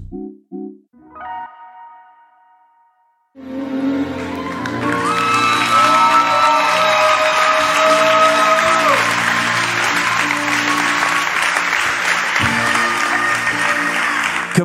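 After a few brief musical tones, loud sustained applause from a large audience breaks out and continues steadily to the end, with scattered cheers and music still ringing beneath the clapping.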